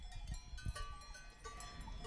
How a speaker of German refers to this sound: ein wunderschönes Plätzchen oben am Luzone-Stausee gesucht, auf der Weide, wo ihre Kühe weiden.